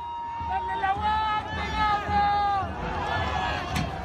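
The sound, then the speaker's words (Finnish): Loud crowd din of street protesters in Santiago, Chile, with many voices chanting and calling together, a sustained tonal chant or whistle line weaving above the steady, dense hubbub throughout. “Parisen viikkoa sitten mielenosoittajat pääkaupungissa Santiagossa muistuttivat, että vuoden 2019 kansannousun vaatimukset tasa-arvoisemmasta yhteiskunnasta elävät yhä.”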